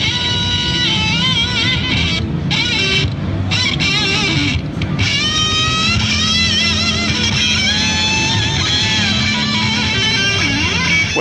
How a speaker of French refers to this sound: Mais figure-toi qu'il y a des gugus qui ont inventé une pédale qui contrôle la distorsion avec un arc électrique de 3000 volts. Ah non, non, non, ça t'électrocute pas, Pompidou, ça fait ça.